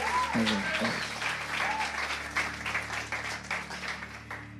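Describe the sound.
A crowd applauds steadily, a dense patter of many hands clapping at an even loudness, with a brief voice and low hum underneath near the start.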